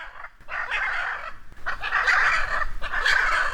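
Hyacinth macaws nesting in the trunk of a tree with a jabiru stork nest give harsh, raspy calls in three loud bouts, each a rough squawking screech with short gaps between, agitated because people are standing there, with no one speaking.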